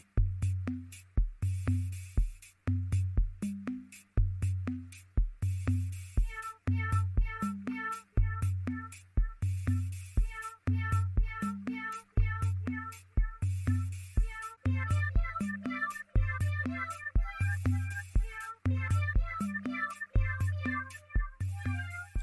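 A bouncy electronic novelty tune with a steady thumping beat, where sampled cat meows repeat in rhythm as the melody, layered over bright synth chimes and hi-hats, loud and continuous throughout.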